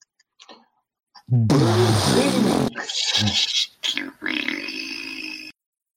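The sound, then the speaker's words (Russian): A voice imitates a helicopter exploding: a loud, growling vocal burst with strong low harmonics, followed by breathy, noisy rumbling and hissing bursts that sputter out over several seconds. “Вот, ну а пока что взрыв вертолет.”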